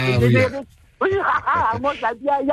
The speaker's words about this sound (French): Elle a son propre jingle. Et là, je dis, ça va, c'est maman ça.